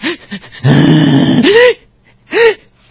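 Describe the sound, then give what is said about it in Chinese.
A man's voice imitates a little boy sobbing and gasping for breath after being scolded by his mother for knocking over a water cup: a few short choked gulps, a long strained wailing cry, then a sharp catch and one more hiccuping sob. “刚教育完，孩子哭的气儿都喘不上来，在那儿”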